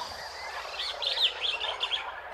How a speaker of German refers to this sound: Man hört verschiedenste Vögel.